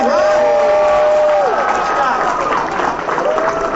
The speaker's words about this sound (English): Actually, by the way, let's give a round of applause to the Reds' newest mascot, Talk about energy. Rosie Red's got it.